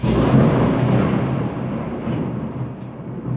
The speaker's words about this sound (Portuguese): Uou, tá uma chuva aqui, caiu um raio e não sei se vocês ouviram aí, mas balançou tudo aqui.